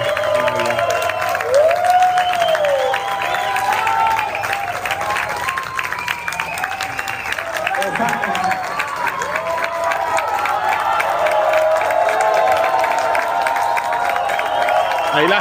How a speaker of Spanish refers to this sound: están escuchando podcast, haciéndole como un standing ovation también ahí.